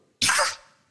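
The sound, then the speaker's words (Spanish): A single sharp cough bursts out suddenly, loud and breathy with a harsh, noisy burst, then fades quickly into a brief hiss. No one is talking during it. “Salud.”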